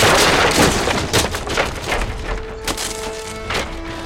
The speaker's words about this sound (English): It sweeps onto the stage splintering the wood with its immense weight as we tumble down among the ruined scaffolds.